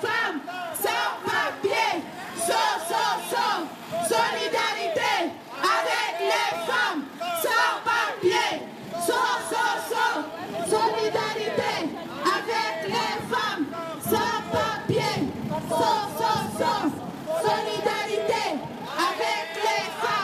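A large crowd at a protest in Brussels in March 2016 chants "Solidarité avec les femmes sans papiers" in unison, voices loud, rising and falling in a steady rhythmic cadence with overlapping shouts throughout.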